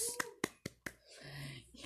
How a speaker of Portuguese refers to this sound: Ai, ah, que legal, aplausos, né, gente? Aplausos.